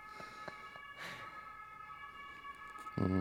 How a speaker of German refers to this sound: Stimmt, ich überlege auch gerade, man kann Krankenwagen und Polizei unterscheiden, ne? Ja. An diesen Dings. Ich glaube schon. Ich glaube, das war Polizei. Ja? Oder war es Krankenwagen? Ich glaube, das war Krankenwagen.